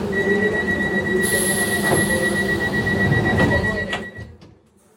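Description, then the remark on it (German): A London Underground Piccadilly line train at Hounslow East station in London rumbles loudly, its wheels letting out sustained high-pitched squeals and screeches, before the noise fades out abruptly near the end. “Offiziell heißt sie London Underground, aber jeder nennt sie nur The Tube, die Röhre.”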